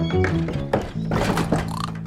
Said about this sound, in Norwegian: Nå åpner jeg døren, vær stille, mann og mus. Jeg entrer nå svenskens grisehus.